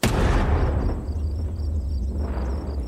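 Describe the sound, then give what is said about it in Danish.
A heavy coastal cannon, able to fire 800 kg shells at nearly 3000 km/h at targets 30 to 40 km away, fires once with a loud boom, its deep rumble rolling on and slowly fading for several seconds. No voices are heard. “Kanonen kunne skyde med 800 kilo tunge granater, der fløj med en hastighed af næsten 3000 km i timen, og kunne ramme mål mellem 30 og 40 km væk.”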